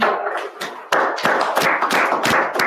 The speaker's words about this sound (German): Applaus.